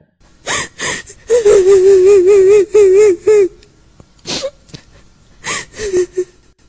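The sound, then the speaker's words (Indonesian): A woman's faint, ghostly, wavering moan drawn out for a couple of seconds, framed by sharp breathy gasps before and after, fairly loud with no speech, heard suddenly inside a bus. “Tiba-tiba suara lirih seorang wanita terdengar.”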